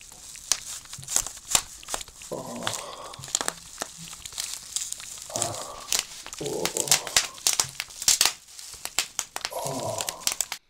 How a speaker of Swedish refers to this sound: En, en bubble wrap liksom. Så man bara sitter ja, och så... och smäller ifrån rummet.